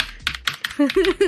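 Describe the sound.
Quick, irregular clicks of keys being typed on a computer keyboard, a handful of sharp taps in a row, then a voice begins talking as the clacking fades under it.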